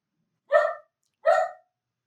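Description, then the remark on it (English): Two sharp dog barks about three-quarters of a second apart, clear, with silence around them and no talking or other noise; the dogs are barking during a sudden thunderstorm. “Sorry, my dogs are going nuts because we're suddenly having a thunderstorm here, but uh, uh but let's just keep going.”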